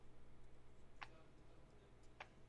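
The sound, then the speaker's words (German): Two sharp, fairly loud keyboard key clacks, roughly a second apart, stand out against a steady low background hum, with no talking. “Weil du hast gerade so richtig Keine laut geschrieben.”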